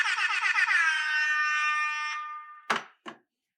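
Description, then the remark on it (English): A loud, brassy air horn blares with a warbling, pulsing tone that holds steady, then cuts off, followed by two sharp thumps close together. “But I got, let's get some air horns for the MVP.”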